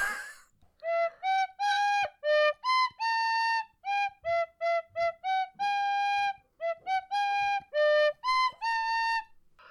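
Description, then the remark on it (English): A tin whistle plays a lively movie theme tune, a steady run of short and held notes with brief breaths between phrases, bright and fairly loud, with no talking. “But basically, I'm going to play a movie team tune in a mm. tin hmm. whistle”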